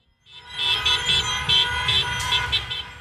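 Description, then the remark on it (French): Car horns honk repeatedly in short, uneven blasts over a steady rumble of street traffic, loud, with several horns overlapping in a lively, insistent rhythm, at a street protest with placards and slogans against President Javier Milei in the Argentine capital, where hundreds of people celebrated a setback for the president. “Des klaxons et des pancartes, des slogans contre Javier Milei dans la capitale argentine.”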